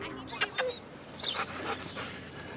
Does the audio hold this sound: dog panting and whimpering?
yes